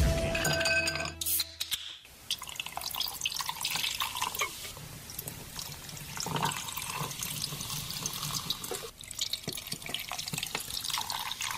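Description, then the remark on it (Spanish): A sharp metallic crack and hiss of a beer can opening, followed by a steady fizzy pour of beer into a glass with clinks and bubbling liquid, with no voices. “Se oye bastante refrescante el cómo se destapa esta lata y se vierte en un vaso.”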